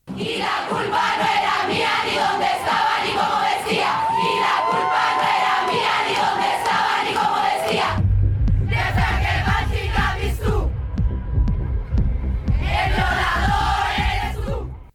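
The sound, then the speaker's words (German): A large crowd at a feminist protest performance in Buenos Aires, Argentina, chants together in loud, rhythmic unison, voices massed and energetic, with brief pauses between phrases and a deep drumming pulse joining in partway through. “ist eben auch bis nach Argentinien geschwappt, wo ja. dann in Buenos Aires das ähm, auf, also performt wurde”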